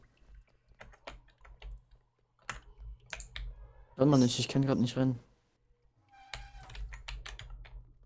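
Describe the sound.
Rapid, forceful clattering of a computer keyboard being hammered, sharp key clicks in bursts, pausing briefly while a man speaks in the middle, then resuming just as hard.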